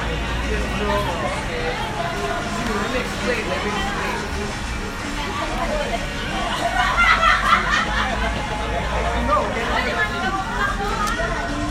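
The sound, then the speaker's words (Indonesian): A steady hubbub of many overlapping voices, many of them young people, some talking in English, fills a busy, popular café, with bursts of chuckling and laughter rising from the crowd, loudest around the middle. Low background rumble runs throughout. “sorry ya suaranya agak ribut nih kita lagi di cafe yang hits.”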